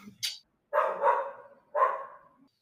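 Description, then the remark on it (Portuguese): A female pet dog named Dilma lets out two loud, drawn-out barks in quick succession, with a brief sharp noise just before them and no talking. “Você teve uma DR com a minha cachorra?”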